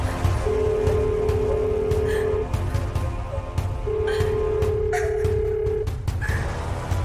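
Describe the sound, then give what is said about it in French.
A phone call rings out on the line from a woman's mobile phone with weak network signal: two long, steady ringback tones separated by a pause, heard through the handset over a low, rumbling background hum. “son téléphone capte un peu de réseau et elle appelle directement Robin”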